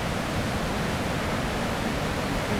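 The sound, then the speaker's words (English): A steady, dense roar of rushing water at the lower part of Vernal Falls, heard while crossing a wooden bridge, constant and loud throughout with no breaks or voices. “So this is river. the lower part of the falls, crossing over a wooden bridge, taking a break.”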